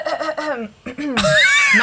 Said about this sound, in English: We're live. Oh God, I gotta clear my throat. Hold on.